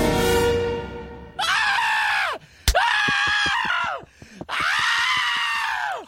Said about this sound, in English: And one of the best uh, screams when Fry realizes, running around naked.